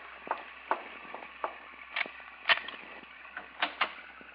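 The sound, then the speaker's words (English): A series of sharp mechanical clicks and clunks, irregularly spaced, as a latch is worked and an aircraft's tail compartment hatch is unlocked and pulled open, with no voices. “All right, now open up that tail compartment.”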